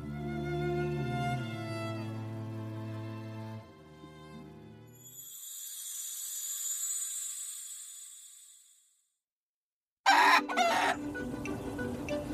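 A rooster crows loudly and at length, followed by a brief pause and then a burst of harsh, agitated clucking and squawking from chickens. No one speaks.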